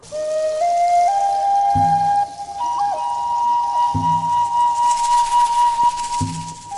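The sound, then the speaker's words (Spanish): A breathy reed flute plays slow, held notes that glide gradually upward, over a steady hiss and occasional soft low thumps in the background. “¿Qué instrumento tocas que suena tan bonito? Es mi flauta de carrizo.”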